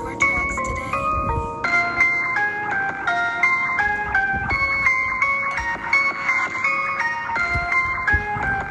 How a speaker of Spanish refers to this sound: Escucha el beat, siente el beat, tú eres el beat.